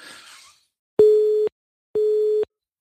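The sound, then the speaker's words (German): A telephone busy signal sounds after a call drops: two steady, identical tones of about half a second each, separated by equal silences, loud and clear after a brief burst of noise. “Dann müssen wir dann gleich noch einmal kurz hinterher telefonieren, wenn unser Techniker mal dieses Tuten abstellen würde.”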